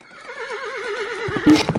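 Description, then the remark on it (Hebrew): A horse whinnies in a long, wavering neigh, followed by a brief burst of hoofbeats clip-clopping near the end: the royal horse carrying Mordecai the Jew, led by Haman through the city streets. “היי, תראו, מי זה שם על הסוס, אמן? לא, לא, זה מרדכי היהודי, אמן מוביל אותו על הסוס המלכותי ברחובות העיר.”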